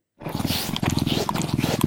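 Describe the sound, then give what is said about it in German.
A Eurasian lynx's threat call: a harsh, continuous growling snarl with a rough, pulsing texture, loud and sustained for nearly two seconds after a brief silence, with no talking over it. “Nicht nur Drohgebärden kann der Luchs ausstoßen”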